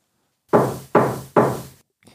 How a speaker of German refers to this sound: Aber der Wolf ging direkt zum Haus der Großmutter und klopfte an die Tür.